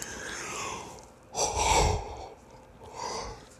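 A fairly quiet yawn from a tired person: a breathy intake swells into a louder, gasping peak, then trails off with a softer exhaled breath. No one speaks.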